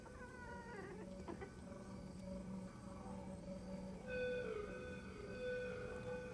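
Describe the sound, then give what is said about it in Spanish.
A rooster in a film scene clucks and calls with warbling, tonal sounds, followed by a longer drawn-out call in the second half. The calls are steady and moderately loud, with no talking. “Ok, y otra vez hay un gallo en la escena.”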